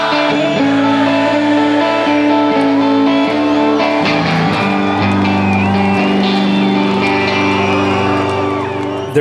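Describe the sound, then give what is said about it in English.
A large concert crowd sings a song line in unison after the singer stops and hands it to them, sustained pitched voices filling the space loudly and steadily, with scattered whoops and shouts rising over the mass singing throughout. “She lies and says she's in love with him, and then gives it to the crowd to sing.”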